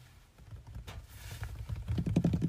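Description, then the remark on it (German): A person imitates light rain pattering on a tent at night while camping: a steady stream of quick, soft taps, fairly quiet, growing a little denser and louder toward the end. “Weil, wenn du dich abends ins Bett legst, ist Nacht, du legst dich hin und es ist so ein leichter Regen, das macht die ganze Zeit so.”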